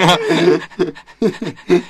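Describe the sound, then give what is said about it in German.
A person pants like a dog, with quick, loud, breathy huffs in an uneven rhythm, about five bursts with short gaps between them. Some huffs carry a bit of voice. “Digga, einfach so ein Hund geworden.”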